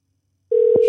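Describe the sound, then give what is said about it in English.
After a moment of silence, a steady electronic telephone ringing tone of an outgoing phone call switches on abruptly and holds at an even pitch, loud, with a faint click partway through. “And the phone is winging.”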